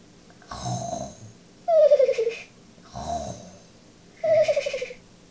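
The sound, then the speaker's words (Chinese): Steady snoring of Japanese soldiers sleeping in the room across, with no talking: two slow breath cycles, each a low rumbling rasp followed by a louder, buzzing snort that slides downward in pitch. “雨来妈妈听着对屋鬼子睡觉的呼噜声，望着窗户纸。”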